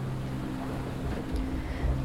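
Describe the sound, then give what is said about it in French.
A sailboat rocking on waves, heeled over as the wind presses on its sails: a steady low hum and rushing wash of water fill the short stretch, with a couple of dull, heavy thumps near the end and no voices. “Mon corps s'enfonce entre l'assise et le dossier, avec la force des vagues et l'angle que nous avons quand le vent appuie sur les voiles.”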